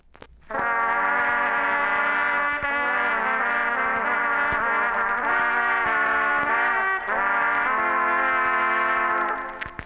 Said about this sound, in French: Et enfin, le grand loup gris qui sort du bois. Écoutez les trois corps sévères et sombres.